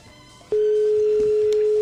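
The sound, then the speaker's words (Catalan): After a brief moment of faint background noise, a loud, steady telephone line tone switches on while a phone call is being placed and holds at one mid pitch without a break to the end. No one speaks. “Un moment que estem trucant.”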